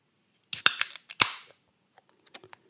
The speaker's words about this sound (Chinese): 我们先从开啤酒开始